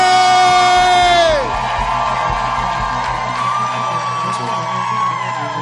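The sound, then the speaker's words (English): A church audience cheers and claps loudly as Bishop Richard Ayers is welcomed to the pulpit, with high whoops and yells that rise and then drop after about a second and a half into a steady roar of applause and shouting. “If you're excited as I am, make some Holy Ghost noise. Clap your hands as we welcome to the pulpit Bishop Richard Ayers.”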